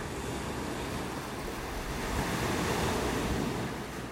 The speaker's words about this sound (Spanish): Puedes visualizar una playa de arena blanca, conectando con la brisa tibia, el sonido de las olas romper en la orilla.